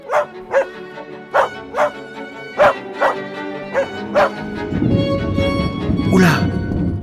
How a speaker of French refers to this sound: Alors moi, j'aboie encore, mais de joie.